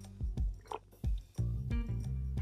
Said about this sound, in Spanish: ¿qué estáis tragando, weón? ¿Quién está tragando, eh? Te escuché, te escuché el gloop. ¿Escuchaste mi gloop? Hoy siempre se escucha mi gloop, no entiendo. Escuché tu, escuché tu gloop, weón.